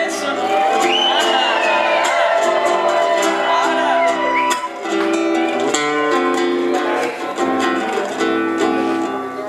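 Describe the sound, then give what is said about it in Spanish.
A large crowd shouts and cheers loudly and continuously, with whoops and rising voices blending into a dense, sustained roar with no pauses. “Ahora quiero escuchar el grito”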